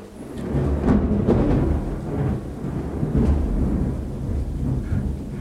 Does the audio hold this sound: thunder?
yes